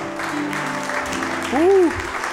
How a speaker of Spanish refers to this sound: ¿Alguien puede darle un aplauso al Señor mientras puedan hacerlo en esta hora?